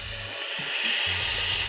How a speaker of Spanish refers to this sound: Más allá de la sensación del, de la de la saciedad, es el vergazo de vapor en los pulmones. Eso es lo que a mí me gusta.